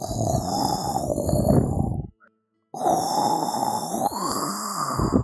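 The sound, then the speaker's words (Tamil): Someone imitates with their voice the heavy snoring of a bull sleeping deeply in the shade of a big tree: two long, loud, rough grunting snores separated by a brief pause, low and raspy throughout. “ஒரு நாள் இந்த புல் வந்து ரொம்ப ஆழ்ந்த தூக்கத்தில் ஒரு பெரிய மரத்து நிழலில் படுத்துட்டு இருந்ததாம் அப்போது பெரிய சத்தத்தோட கொரட்டை விட்டு தூங்கிட்டு இருந்ததாம்”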